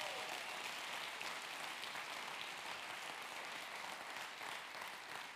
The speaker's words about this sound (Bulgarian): О, ако ръкопляскаш, ръкопляскай, като че наистина вярваш.